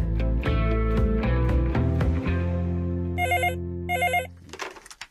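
A telephone rings in two short trilling bursts over a sustained musical bed, as a call is placed to a chocolate factory; the rings are bright and clearly audible, and no one speaks.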